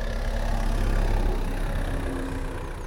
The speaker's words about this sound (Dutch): Komt de auto, Komt Wacht wel even tot hij bij is.